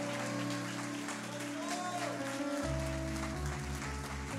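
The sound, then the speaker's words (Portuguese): An audience gives a strong round of applause to the Lord, clapping steadily in a dense, sustained wash of applause, while held keyboard chords and a deep bass line play underneath throughout. “Ah, dê um aplauso bem forte ao Senhor, irmão.”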